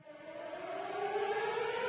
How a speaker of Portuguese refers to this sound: Gente, só lembrando que vocês estão escutando agora a sirene do spoiler, então o episódio vai ter spoilers, não vamos ter nenhuma sessão sem spoilers.